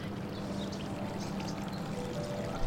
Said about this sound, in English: Some people get emotional when they see this. I had a, a hydrologist from the USGS almost break into tears. He'd never seen this effect of the water bubbling up out of the ground.